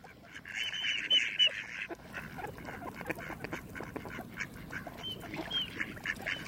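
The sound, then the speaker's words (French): A mallard duck quacks in a rapid, raspy series, loud at first, then continuing in softer repeated calls over a steady background. “Lui, c'est le canard que vous connaissez tous, c'est le canard colvert.”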